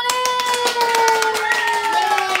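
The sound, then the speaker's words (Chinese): Applause from a small group of guests after a story is told: quick, irregular hand claps patter steadily throughout, mixed with a sustained, slightly sliding voice-like tone held underneath the whole time. “来宾请掌声鼓励”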